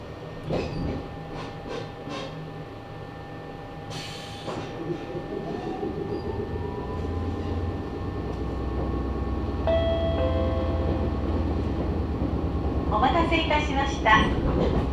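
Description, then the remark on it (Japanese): A Nagoya Railroad (Meitetsu) Mikawa Line local commuter train, running from Hekinan and bound for Chiryu via Takahama and Kariya in Japan, rolls along the tracks, heard from inside the carriage: a steady low rumble building with motor whine and rising tones, bright metallic squeals and clatter near the end, with faint voices in the background. “【音の旅】名古屋鉄道 三河線（海線）碧南→知立”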